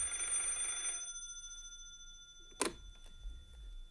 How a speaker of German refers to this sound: Endlich klingelte das Telefon.